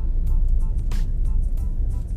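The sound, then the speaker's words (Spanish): Steady, fairly loud low rumble of car traffic on a road that never lets up, with brief airy hisses of passing cars rising above it. No one speaks. “Porque lo único que veo aquí son coches. Coches.”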